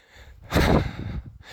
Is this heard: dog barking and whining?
no